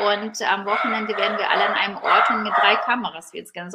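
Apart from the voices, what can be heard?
dachshund barking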